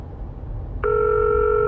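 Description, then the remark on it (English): After a moment of low background hum, a steady electronic telephone tone starts abruptly and holds, clear and fairly loud, until the end; no one speaks. A phone rings in the morning and is not answered. “The Tan siblings knew that once the phone rang, it was time to get up and start getting ready for their school day.”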